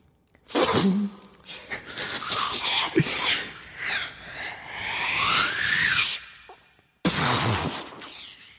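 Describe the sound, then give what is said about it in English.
A voice imitates a mortar shell hitting: a long, loud, spitting burst of breathy noise with whistling tones wavering through it, a short pause, then another brief sputtering blast. “there was a there was actually spray coming out of the mortar when it when it hit.”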